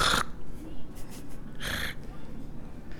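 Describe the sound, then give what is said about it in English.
A voice imitates a man in a leather jacket snorting through a movie every 30 seconds: two sharp nasal bursts with a few fainter sniffs between them, over a low, steady background hum. “So I'm at the movie and there's a guy behind me in this leather jacket, and I don't know if he like railed a line before he showed up or, but he was just snorting the whole movie every 30 seconds you go”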